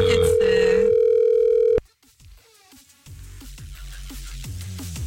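A steady, loud telephone ringing tone holds for almost two seconds, then cuts off with a click; after a brief silence, music begins playing, as if over the line.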